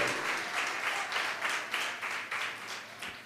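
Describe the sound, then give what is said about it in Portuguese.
A crowd applauds the Lord at a preacher's call, a dense wash of many hands clapping at once, sustained for a few seconds at moderate loudness with no one speaking. “Você pode aplaudir o Senhor?”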